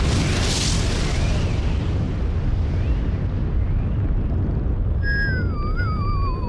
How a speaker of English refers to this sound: That was a hell of a blast.